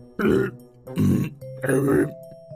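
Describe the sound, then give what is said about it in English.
Three loud, guttural burps from a robot walking around in circles come in quick succession, each lasting about a third of a second, with a faint steady electronic tone humming in the gaps between them. “And as they activated the robot, it started walking around in circles and burping a lot.”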